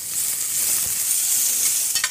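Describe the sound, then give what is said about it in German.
Steady sizzling of greens frying with garlic in hot oil in a pan, seasoned with salt and pepper, a dense hiss with occasional scraping clicks as they're stirred, strongest near the end. No one talks. “Wie lange lässt du das dann in der Pfanne?”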